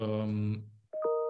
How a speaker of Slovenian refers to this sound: meni tukaj nekaj piska, pa ne vem, ali je to per men, ali je to per tep. Ne vem, kaj to skozi nekaj piska.